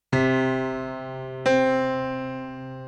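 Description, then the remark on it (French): A vibrating string sounds two plucked notes in turn, the second from half the string length, about a second and a half after the first and an octave higher, each bright and sustained, fading slowly with no voices. “Plus précisément, quand il divise la longueur par deux, il obtient un son deux fois plus aigu. C'est un intervalle qu'il appellera l'octave.”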